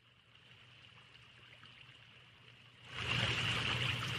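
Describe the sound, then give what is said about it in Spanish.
A river with crystal-clear water flows steadily with a continuous watery rush, growing noticeably louder and fuller about three seconds in. No voices are present. “Se metió a bañar al río para despejar su mente en las aguas cristalinas.”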